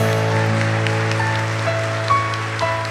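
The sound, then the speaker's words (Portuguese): A crowd applauding for São Francisco (Saint Francis): a dense, steady patter of clapping that holds at an even level for the whole stretch, with a sustained low tone humming underneath. “Uma salva de palmas para São Francisco.”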